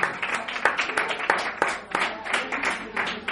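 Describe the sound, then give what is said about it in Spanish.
An audience claps together in a steady, dense burst of applause, moderately loud, with sharp individual claps standing out over the continuous rattle for a few seconds. “Un aplauso, por favor.”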